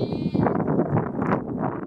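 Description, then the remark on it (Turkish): A crowded flock of ewes and lambs bleating continuously as the lambs search for their mothers, several overlapping calls forming a dense, wavering chorus, fairly loud, with no talking. “Her koyun kendi kutusunu e, hem kokusunu hem sesinin hem duyuları, koku duyularını bir şekilde bulmaya çalışıyor.”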